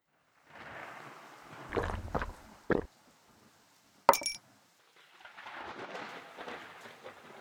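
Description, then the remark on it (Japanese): Steady rain hisses throughout while sharp, loud thunderclaps crack twice, followed by rumbling, before the downpour continues on its own. “その日は雷”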